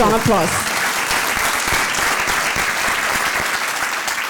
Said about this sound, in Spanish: Dale ese fuerte aplauso.